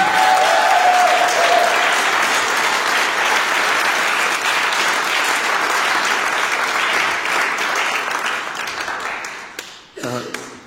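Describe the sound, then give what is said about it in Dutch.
A crowd applauds steadily for about ten seconds for students who finished their studies at CD College Online, a dense wash of many hands clapping at even loudness that thins out near the end, with a brief tone early on. “Kom, ze we eens een applaus geven?”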